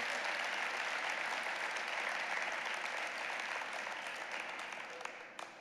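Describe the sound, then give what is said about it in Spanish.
An audience gives a big round of applause to the Lord, clapping steadily in a dense, continuous wash that holds strong for about five seconds before gradually tapering off at the end. “Dele un gran aplauso al Señor por esa semilla que ha sembrado en su corazón.”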